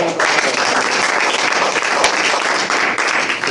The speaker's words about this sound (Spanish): aplauso para todos ustedes.